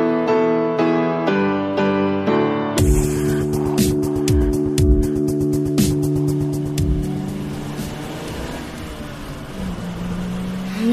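A racing car engine roars at high revs, shifting gears with sharp rising pitches as it speeds along, loud, with bursts of tire noise and no talking.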